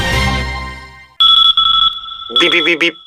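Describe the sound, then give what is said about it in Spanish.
A loud, steady electronic beep tone in a radio advertisement for online shopping cuts in after a brief burst of music and holds for nearly two seconds, with a voice briefly overlapping it near the end. “Si al ir a comprar por internet te suena este bip, en tu cabeza y decides comprar a empresas españolas, damos este anuncio por bueno.”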